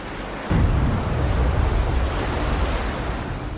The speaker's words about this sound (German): Und wie man hört, da ist man im Ozean und man taucht dann auch wirklich immer weiter in die Tiefe.